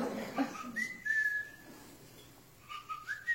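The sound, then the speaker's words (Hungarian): A person whistles short, bird-like phrases to talk to birds, said to mean 'how are you today?': sliding tones with a sustained high note, then a pause and a few more chirpy rising whistles, imitating birdsong without any talking. “I can, I can talk to birds.”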